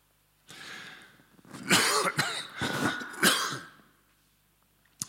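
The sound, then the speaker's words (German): A rough throat clearing followed by a burst of several harsh coughs from someone who has a cold, loud and raspy, then a short quiet breath; no one speaks. “Entschuldigung, ich bin immer noch so erkältet.”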